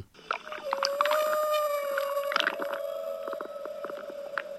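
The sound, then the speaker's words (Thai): A long, steady underwater whale call holds one tone, overlaid with higher wavering whistles and scattered clicks, continuous for several seconds with no one speaking. “ทีนี้พอมาพื้นที่น้ำทะเล มันก็จะมีสัตว์อีกกลุ่มหนึ่ง เช่น วาน”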